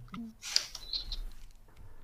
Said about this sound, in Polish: Miasto jest żywe. Mewy, ptaki, które ćwierkają gdzieś nad wami. W tym wszystkim szum fal, zapach oceanu, mokrość wody.